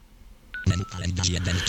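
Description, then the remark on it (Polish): A short electronic beep from a headset as a menu is entered, followed by a second faint tone as the menu is exited, while a man starts talking over it. “O, to są właśnie takie różne sygnały. O, wszedłem w menu, wyszedłem z menu, prawda?”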